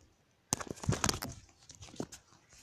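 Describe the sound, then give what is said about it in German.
A mobile phone drops onto a hard floor with a sharp impact, followed by a quick burst of clattering and rattling as it settles, then a few fainter knocks. “Mist, mein Handy ist mir gerade runtergefallen, sorry.”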